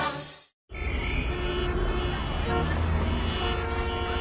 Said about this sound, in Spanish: Qué lindo sería un día sin el ruido del tránsito